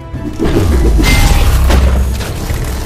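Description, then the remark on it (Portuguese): A heavy booming impact with a crunching, shattering edge as a legionary's powerful sideways blow smashes a mechanical creature's torso piece by piece, followed by rumbling low-end debris and metallic clatter that lingers for a couple of seconds. No one speaks. “Aproveitando o mesmo balanço, o legionário gira em seu próprio eixo e desfere um golpe lateral de extrema potência, esmigalhando peça por peça no torso da criatura.”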